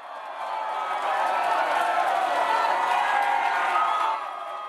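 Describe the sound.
A young concert audience in the USA cheers and applauds at the end of a concert in a dense, sustained roar of voices and clapping that swells after the first moment and holds steady before easing slightly at the end.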